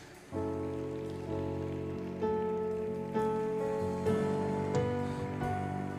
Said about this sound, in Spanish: Aleluya, apláudele fuerte a Jesús.